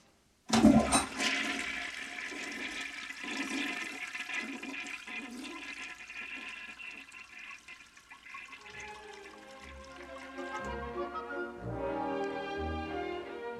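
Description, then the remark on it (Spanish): A toilet flushes with a sudden loud whoosh after half of a failed stew of canned chickpeas with cream cheese is thrown into it, then a long steady rush of swirling water that eases off and gives way to a higher, hissing refill tone near the end. No voices. “Un día cocinó garbanzos de lata con queso de untar no salió demasiado bien y tiró la mitad del guiso al excusado.”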